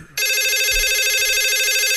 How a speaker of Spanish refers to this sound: ¿Qué mendigo teléfono es ese, güey?